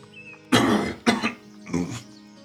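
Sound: coughing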